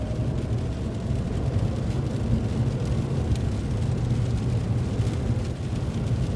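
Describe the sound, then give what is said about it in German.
Steady, dense low rumble of an electric car accelerating from 50 km/h as it reaches the end of a town, heard from inside, with road and tyre noise holding at a fairly loud, even level throughout and no voices. “Wir fahren jetzt mit 50 im Innerorts ganz normal und gleich, wenn er am Ende Ortsende ist, wird er wieder Gas geben.”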